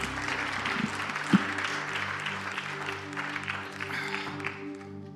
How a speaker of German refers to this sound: Hält denen einfach einen liebevollen Applaus.